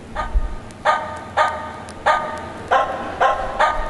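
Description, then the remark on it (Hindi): A dog barks repeatedly in a steady rhythm at night in a village, about seven sharp, clear barks spaced roughly half a second apart, fairly loud with no talking. “सारी रात गांव में कुत्ते भोंकते रहते कोई शुरू कर देगा बस चल पड़े”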